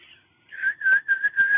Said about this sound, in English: I've been learning how to whistle, so there's that.